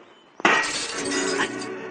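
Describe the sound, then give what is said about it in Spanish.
A vase smashes: a sudden loud crash followed by a dense, bright clatter and tinkle of shards that rings on for over a second. “Ay, Dios, ya se rompió. ¡Virgen, ¿pero qué has hecho? Un jarrón que era de mi abuela, que había heredado de su abuela, y tú, grandísimo.”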